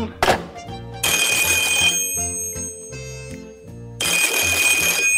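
telephone ringing

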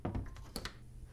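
door being closed

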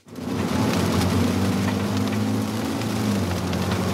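pouring rain

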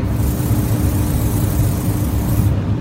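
spray tan machine spraying

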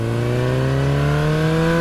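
motorcycle engine revving

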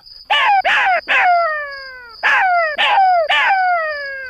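jackal howling

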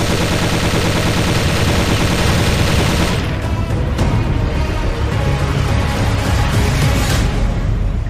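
gunfire bursts

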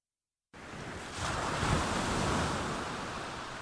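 ocean waves

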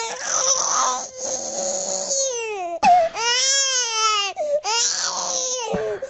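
crying baby sound effect

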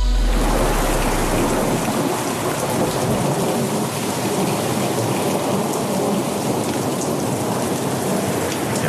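thunderstorm with heavy rain

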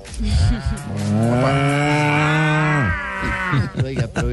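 cow mooing

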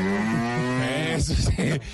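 cow mooing

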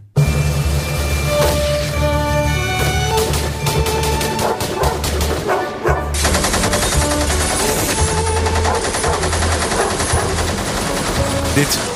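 machine gun fire

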